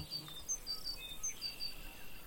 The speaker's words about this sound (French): Mais tous ces petits insectes volants, qui viennent bourdonner autour de vous sont portés par ce vent.